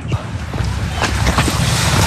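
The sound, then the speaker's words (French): Water pours and splashes steadily through a slightly opened sluice gate onto a turning water mill wheel, the weight of the little water turning the wheel; a loud, continuous rush with a deep low rumble and scattered irregular splashes throughout. “l'eau tombe dans la roue et le poids de l'eau fait tourner la roue”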